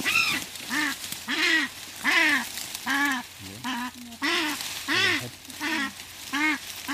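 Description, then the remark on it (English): A kākāpō named Wolf skraaks its disapproval at being caught, a string of about ten harsh, nasal, goose-like squawks in steady rhythm, loud, with no talking. “And that's the sound of a very unimpressed kakapo scracking its disapproval at being caught.”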